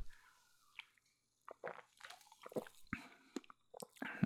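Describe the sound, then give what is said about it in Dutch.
Sipping a fizzy energy drink: a few short wet slurps and gulps with small mouth clicks, quiet pauses between them, and no talking. “Ik ga gewoon eens een slokje nemen.”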